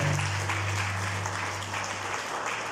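An audience at a morning church service applauds Christ Jesus steadily, a dense wash of many hands clapping at even volume for a few seconds, with a low sustained hum underneath that cuts out partway through.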